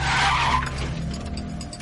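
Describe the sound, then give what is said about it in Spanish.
A minivan's tires skid briefly with a loud screech as Walt brakes it to a stop in the street in front of Jesse's house, followed by a low engine rumble idling. “En la calle, Walt para el monovolumen frente a la casa de Jesse.”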